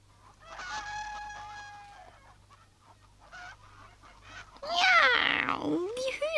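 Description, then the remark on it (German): Chickens cluck and cackle, starting with a drawn-out call, then breaking into a louder flurry of excited squawks toward the end, over a steady low background hum. The chickens are jumping over puddles after a thunderstorm. “Hühner gackern schon und verkünden schönes Wetter.”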